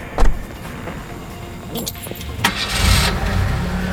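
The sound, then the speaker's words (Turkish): Car keys jingle and click in the ignition of an old car, then the engine cranks and catches at once, settling into a steady idle, one morning in Istanbul. “Kontak anahtarını çevirir çevirmez başlıyor saat gibi çalışmaya.”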